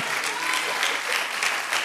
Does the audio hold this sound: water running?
no